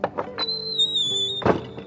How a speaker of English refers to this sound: She went straight to the barn that housed the eggs and opened the door.